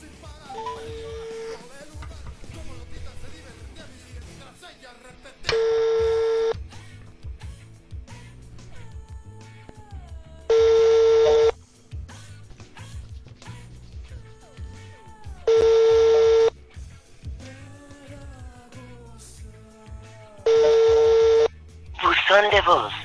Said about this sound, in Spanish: no nos contestó. Segunda oportunidad. Pues segunda oportunidad. A ver, déjale, vuelvo a marcar.